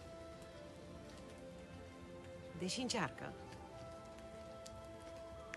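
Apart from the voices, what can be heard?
rain falling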